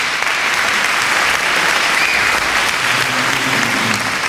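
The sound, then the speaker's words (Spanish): Sustained applause from an audience fills the whole stretch, a dense, steady wash of many hands clapping with no pauses. “Yo cuando... aplauden y está este tío ahí roncando.”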